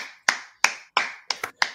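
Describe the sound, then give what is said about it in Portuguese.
A short burst of applause: about five sharp, crisp hand claps in a quick, fairly steady rhythm, with no voices and silence between each clap. “Palmas.”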